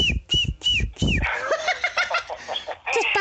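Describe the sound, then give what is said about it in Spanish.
Four quick, high chirps repeat in an even rhythm, then give way to a dense stretch of busy, overlapping twittering and warbling from small pet birds, fairly loud. “nomás porque tienes tus pajaritos ahí.”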